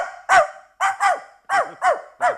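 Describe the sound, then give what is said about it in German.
A person imitates a small dog's yapping bark, six sharp, high-pitched yips in quick, uneven succession, loud, with no other talking. “Erst belle ich mal noch. einen kleinen Hund und dann belle ich noch einen großen Hund.”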